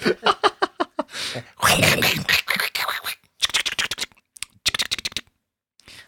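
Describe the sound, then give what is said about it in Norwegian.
A voice imitates paper rustling as papyrus rolls stuffed in an inn's mailbox are looked through, with breathy crackles and scratchy bursts, first in quick rhythmic pulses, then a denser rustle, ending in short choppy flurries separated by pauses. “Gud, jeg er så dårlig på å lage papirlyd.”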